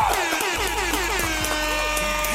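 A loud, sustained air horn blares continuously for a couple of seconds, its brassy harmonic tone wavering slightly in pitch, with no talking.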